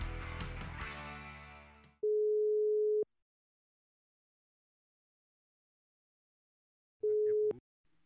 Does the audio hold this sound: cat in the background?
no